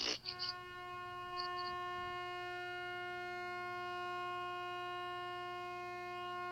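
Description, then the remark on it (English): A loud truck horn blares in one long, unbroken tone, rich and steady from start to finish, with a few short squeaks near the beginning and no voices. “It's a loud truck horn.”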